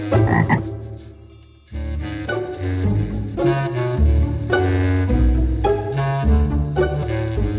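Frog croaking repeats in short, rhythmic bursts against a steady tonal, music-like background, loud, with no one speaking.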